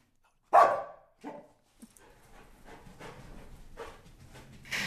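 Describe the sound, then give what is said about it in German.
A service dog named Cassie barks goodbye, one loud sharp bark followed by a couple of softer ones, then quieter rustling and movement with another burst at the end. “Und bevor wir Tschüss sagen, möchte Cassie vielleicht noch einmal Tschüss sagen.”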